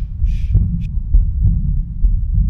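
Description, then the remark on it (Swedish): Heartbeat through a stethoscope on the chest with a heart murmur caused by turbulent blood flow: a steady low whooshing rumble beneath regular muffled thumps about every half second to second, fairly loud, with a couple of brief faint high noises. “när man lyssnar med stetoskopet på bröstet så kan man höra mm. blåsljud. Och blåsljud mm. är ju turbulens i blodflödet.”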